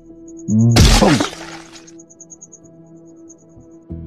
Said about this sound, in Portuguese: A bomba estava exatamente atrás dele. Na verdade, eu botei a cara para ler a bomba, né? Você vê a bomba explodindo.